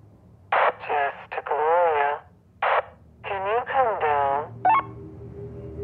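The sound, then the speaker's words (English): A thin, band-limited voice crackles over a two-way radio in several short bursts, sounding tinny and compressed against a low background hum, with brief pauses between phrases. “And then I heard …'s voice over the radio.”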